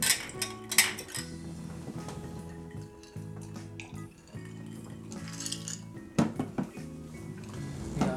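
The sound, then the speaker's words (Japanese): Glasses of umeshu plum wine clink together in a toast: a cluster of bright, ringing clinks at the start and another sharp clink later, over a steady low tonal hum. “ということでまあ私は私の人生をあなたはあなたの人生を生きましょうということで乾杯乾杯”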